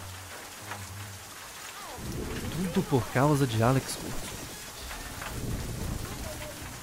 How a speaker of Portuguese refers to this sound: E como chove aqui dentro, credo, vou acordar todo molhado amanhã.